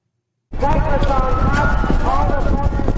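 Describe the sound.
Horse hooves gallop in a fast, steady rhythm, loud, starting abruptly after a brief silence, with voices and rushing noise mixed in throughout: a jockey rides the horse Touchdown Tony in a timber race over wooden fences, filmed with a camera in the saddle.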